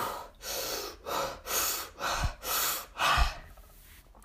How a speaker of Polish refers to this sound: to wtedy robię sobie jeszcze inną rzecz, czyli takie bardziej ćwiczenia oddechowe e, na zasadzie, że potrzebujesz dostać dużo energii, wtedy robisz jak największy wdech i krótki wydech.